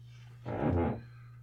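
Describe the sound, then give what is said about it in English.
A single short creak and rustle from a chair shifting, lasting about half a second, moderately loud over a steady low electrical hum, with no one talking. “That was the chair.”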